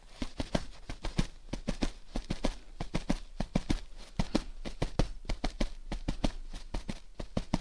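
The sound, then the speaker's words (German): A hand pats rhythmically on a duvet on a bed, imitating the beat of a moving train's wheels: soft muffled thumps in a steady galloping pattern like wheels clattering over rail joints. Continuous, with no voices. “Als ich ein kleiner Junge war, setzte sich mein Vater oft, bevor ich einschlief, zu mir aufs Bett und imitierte mit der Hand auf das Deckbett klopfend den Takt der Räder eines fahrenden Zuges.”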